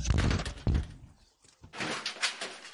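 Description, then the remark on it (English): Heavy knocking by sheriff's deputies on a door: a couple of loud thuds, a brief pause, then a stretch of rough, scuffling noise. “Why are they knocking? They're still knocking.”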